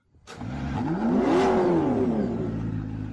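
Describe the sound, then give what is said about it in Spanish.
A car engine starts up and revs, its pitch climbing and then easing off as the car pulls away, heading for the centre of Mendoza, loud with a steady rumble and no talking. “Se viste se toma el café de un sorbo y parte en el auto para el centro mendocino.”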